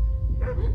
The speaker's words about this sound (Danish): Du kan høre gøen, som hastigt kommer nærmere, og hun gør tegn til dig og peger på døren.